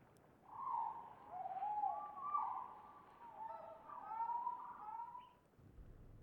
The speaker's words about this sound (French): À l'écart marchent Séverine, Xavier et leurs deux petites filles, au-dessus de qui virevolte un merle inquiet dont les trilles parviennent aux oreilles attentives.